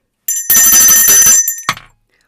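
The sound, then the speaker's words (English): A bell rings loudly, a rapid bright metallic jangle lasting about a second, followed by one last short ding that quickly fades out. “Listen, where's my bell?”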